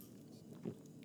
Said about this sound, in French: Et bonne nouvelle, par contre, on prend une gorgée euh, là-dessus